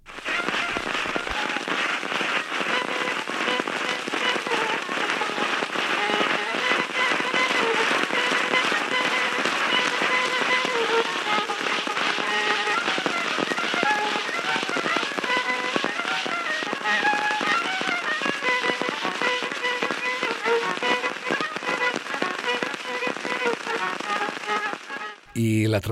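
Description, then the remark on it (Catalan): An old, heavily crackling 1914 phonograph field recording of a folk tune, an original recording made with a primitive recorder. A faint melody wavers beneath dense, constant surface hiss and pops for about twenty-five seconds before cutting off abruptly. “un altre enregistrament original d'una tonada popular aconseguit per Bartók amb la seva gravadora primitiva l'any 1914”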